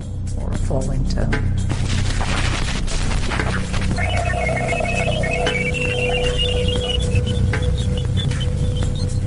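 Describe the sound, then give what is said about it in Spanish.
Jupiter radio emissions: a steady, loud wash of static crackling with irregular popping bursts, joined midway by thin wavering tones that rise and fall. “Algunos oyentes describen estos sonidos como de pájaros carpinteros u olas batiendo en una playa.”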